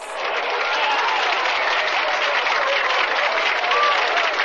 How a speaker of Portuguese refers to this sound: Quer que eu solte algumas palmas?